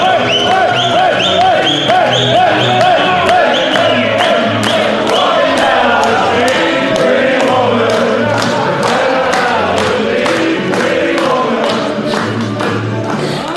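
A recorded pop song plays loud and continuous on a radio show, with a wavering sung vocal over steady percussion beats and full band backing, and no talking over it; it is the song Wayne Bennett was dancing to.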